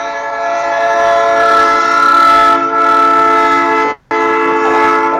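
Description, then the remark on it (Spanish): A train goes by sounding its horn in a loud, sustained blast that breaks off for a split second, then resumes, dominating, with a low rumble underneath and no talking. “Escuchá lo que es este tren, es una cosa maravillosa.”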